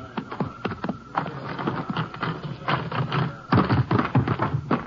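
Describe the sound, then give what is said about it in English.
Horse hooves clip-clop in a quick, uneven rhythm of sharp knocks, growing busier and louder toward the end, with no talking. “I'll get my horse and ride in with you ways.”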